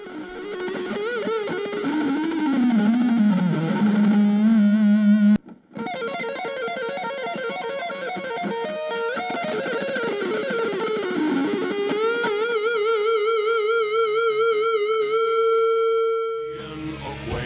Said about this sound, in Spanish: A menudo se modifica con efectos como reverberación o distorsión la guitarra eléctrica